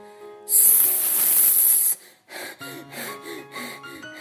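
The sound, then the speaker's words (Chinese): A voice imitates a hiss as the character Horace makes a 'sss' sound: one loud, bright, sustained 'sss' lasting about a second and a half, then a person begins speaking. “霍斯发出“嘶”的声音。”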